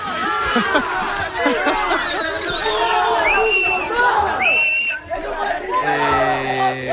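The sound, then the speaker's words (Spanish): A crowd ovation: many voices shout, whoop and cheer at once in a dense, loud, unbroken roar lasting several seconds, with a brief laugh heard among them. “Oye, qué ovación, ¿no? Me he llevado aquí.”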